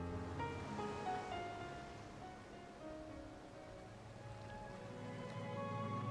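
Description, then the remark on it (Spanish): Sea waves wash steadily against the shore in a continuous, moderately loud roar, with some sustained tonal sounds drifting over the surf. “Yo aquí, y he ahí el mar, el mar que se estira y se aferra a sus orillas, con su regazo lleno de barcas y peces y otras cosas alegres.”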